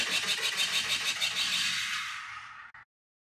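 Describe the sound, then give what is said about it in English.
The gun of the Star Wars ship Millennium Falcon fires in a rapid, rhythmic stream of harsh, bright pulses, loud, holding steady for a few seconds before cutting off abruptly. No voices. “You're correct that it is a gun, but you got the wrong ship.”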